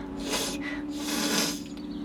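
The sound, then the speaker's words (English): A voice imitates labored, congested breathing on waking up hardly able to breathe: two raspy, wheezing gasps in quick succession, fairly loud, with a nasal rattle running underneath. “Also, I woke up this morning to me like hardly breathing.”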